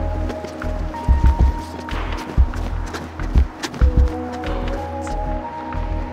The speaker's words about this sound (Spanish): Para comprobar qué tan posible es que el conductor no me viera, cronometramos el tiempo que me demoro en cruzar la avenida corriendo. Cuando dé el verde voy a correr, ¿ya?